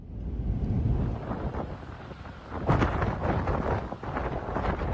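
Powerful storm wind in Crimea, the strongest there in 16 years, with wind speeds reaching 144 km per hour, roars and buffets the microphone, a dense low rumble with gusting surges that swell loudly around the middle, continuous with no voices.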